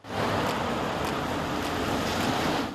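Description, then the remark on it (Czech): A steady, dense roar of heavy road traffic on the main through-road from Kolín to Jihlava in Havlíčkův Brod, Czech Republic, used by tens of thousands of cars daily, continuous and fairly loud, with vehicles blending into one broad rushing wash and no voices. “Hlavní průtah z Kolína na Jihlavu v Havlíčkově Brodě. Takhle vypadal ještě dnes dopoledne. Denně tu projedou desetitisíce aut”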